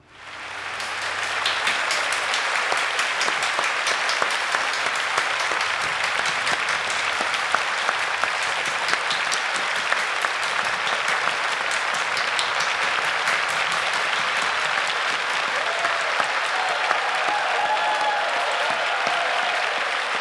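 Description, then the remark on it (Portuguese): Sustained audience applause for Bibi Ferreira during a stage performance fills the whole stretch, a dense, steady wash of many hands clapping, loud and even throughout with no voices standing out. “Aplausos em cena aberta para Bibi Ferreira.”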